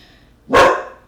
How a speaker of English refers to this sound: my dog just heard her friend bark and now she's barking back.